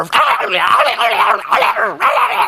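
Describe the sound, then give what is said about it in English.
A person mimics a Chihuahua's high, rapid yapping, a run of shrill, whiny yips with brief breaks in between. “it's like, but it's the Chihuahua sound.”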